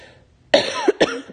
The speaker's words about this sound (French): euh, désolé, je tousse.